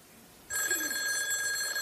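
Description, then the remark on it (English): After a brief quiet moment, a princess telephone's bell suddenly starts ringing loudly, a shrill, continuous metallic trill that keeps going to the end, with no one talking. “That princess phone, that's right.”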